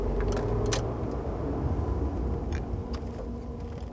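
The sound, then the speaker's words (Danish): A car driving north rolls along with a steady low engine and road rumble, a few light clicks and rattles inside the cabin, the noise easing slightly toward the end as it slows and pulls over to the side of the road for a break. “På et tidspunkt så holder vi en pause, og vi holder ind til siden.”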